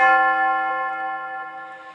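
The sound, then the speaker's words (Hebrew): A single large palace bell rings once at sunset, signaling the end of the day's search; its rich, deep tone rings out clearly and slowly fades over a couple of seconds, with no voices present. “פעמון הארמון השמיע את אות סיום החיפושים לאותו יום.”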